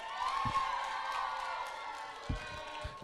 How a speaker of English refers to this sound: He is our youth pastor here at Gateway Church. We are so blessed to have him and his wisdom. Can we give a big round of applause